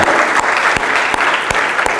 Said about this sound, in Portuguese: Só quem vive o melhor de Deus, dá mais um forte aplauso a Ele. Aleluia!